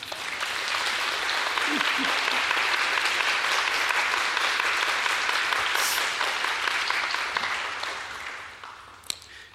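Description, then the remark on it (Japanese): A sustained round of audience applause, dense steady clapping from many hands at an even loudness for about eight seconds, then tapering off with a last few claps at the end. “拍手しましょうか。”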